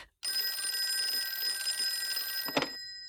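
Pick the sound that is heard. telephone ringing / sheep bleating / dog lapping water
telephone ringing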